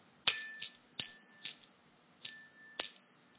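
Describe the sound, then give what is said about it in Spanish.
A small bell covered with paper and held near the microphone is struck three times, each hit giving a sharp papery buzz over a steady high ring that hangs on throughout, with softer rattles between strikes and no talking. “Entonces le puse el papel encima a la campana y voy a, voy a tocarla.”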